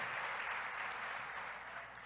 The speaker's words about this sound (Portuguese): Então, eu queria que vocês aplaudissem, porque você, é, isso é realmente maravilhoso.